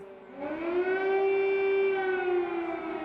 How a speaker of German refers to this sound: In den frühen Morgenstunden am 24. Februar tönten in der ukrainischen Stadt Kiew die Sirenen.